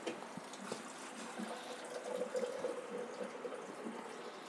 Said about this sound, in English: He's staring at you while he's filling up my water cup mm-hmm. which sounds like it's peeing.